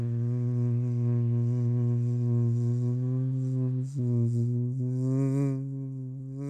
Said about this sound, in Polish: Często słyszeli osy bzyczenie.